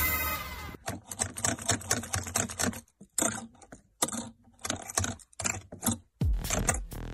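A dog's claws rasp against a wire mesh door in quick, uneven bursts of scratching, loud and gritty, with brief pauses between strokes and no voices.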